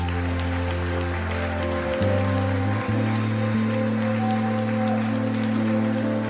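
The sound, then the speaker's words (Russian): A crowd applauds Jesus steadily, a dense rain-like clatter of clapping that carries through the whole clip over loud, sustained keyboard chords that change a couple of times. “Дай огромные аплодисменты Иисусу.”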